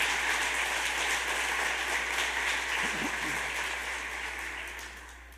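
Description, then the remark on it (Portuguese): A church audience applauds the Lord Jesus, with dense, steady clapping from many hands forming a continuous roar that holds for several seconds before slowly fading toward the end. “Aplauda o Senhor Jesus.”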